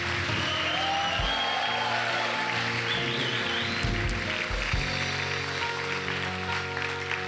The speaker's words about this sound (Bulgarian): трябваше да викате и да ръкопляскате тук.